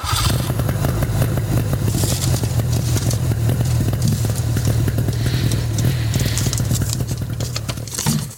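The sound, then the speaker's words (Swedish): The engine of a classic Nimbus 1200 motorcycle runs steadily throughout, a deep, throbbing idle with a rapid low pulse and a loud, constant level, with no voices over it. “ja, det är ju en Nimbus 1200. Precis, ja det gamla klassiska.”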